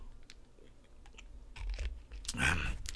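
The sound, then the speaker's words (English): A person takes a drink to wet dry lips after talking alone for a while: a couple of short, wet sipping and swallowing sounds, the second one louder, with no talking and faint background noise between them. “It's got to water the old lips there.”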